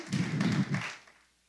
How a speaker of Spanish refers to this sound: tocando a la puerta, esperando que decidiéramos por Él.